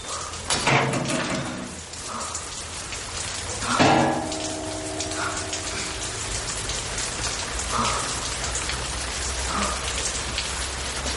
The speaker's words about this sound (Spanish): Está empezando a llover.